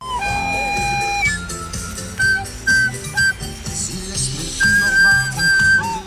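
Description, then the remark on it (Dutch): Shrill whistle blasts ring out in bursts over a busy outdoor mix of brass-like music and crowd noise. The sound comes from a small carnival procession that two friends staged in the streets of Breda as a mini version of the big carnival parade. “je hoort hier carnavalsduo … die de grote optocht in het kielschat in het klein tot leven brachten”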